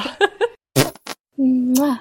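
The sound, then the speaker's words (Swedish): A few short spoken syllables and a breathy burst, then a drawn-out, buzzy fart noise lasting about half a second, loud, apparently made with the mouth. “Det är hon pruttfia där borta på 23an.”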